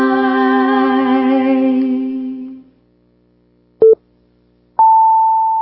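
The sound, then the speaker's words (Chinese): A radio time signal marking nine o'clock: after a sustained buzzy tone fades out, a short beep sounds, followed a second later by a longer, higher-pitched tone that holds steadily to the end. “现在时间九点整。”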